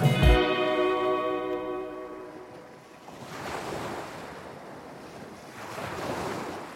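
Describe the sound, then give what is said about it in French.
Ocean waves wash onto a shore on a summer night in two broad, hissing surges, rising and receding slowly. A sustained musical tone fades out at the very start, and no one speaks. “On fait un vœu s'enthousiasme mon amoureux par une belle nuit d'été au bord de l'océan.”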